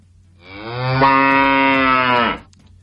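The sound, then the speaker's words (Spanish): A single long, loud cow moo lasting about two seconds with a rich, buzzing tone that swells and then cuts off, with no other sounds around it. “Ah, se siente, las vacas no votan, solo se garantiza vivienda.”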